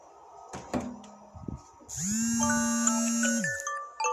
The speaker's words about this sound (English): Sorry, y'all, that's my alarm clock.